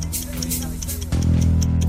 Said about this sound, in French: Tic-tac. Tic-tac. Tic-tac, c'est un autre compte à rebours.